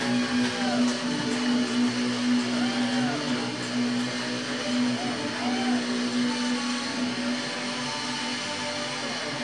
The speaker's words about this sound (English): It sounds totally different with all this stuff. It sounds great. It's it's the baritone guitar. Yeah, it's the baritone Everything's guitar.